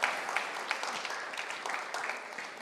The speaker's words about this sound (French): Moi, je sens que certains veulent applaudir, euh, faites-vous plaisir, mais faites pas, faites pas ça pour moi, par exemple.